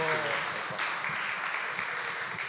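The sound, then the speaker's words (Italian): Sustained applause from a church audience welcoming a speaker, a dense steady patter of many hands clapping at even loudness, with a brief voice at the very start. “Quindi accogliamolo con un applauso.”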